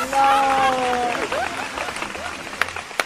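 A burst of applause with a dense patter of clapping, opening with a brief high whoop or whistle, then fading to scattered claps and a few sharp final slaps.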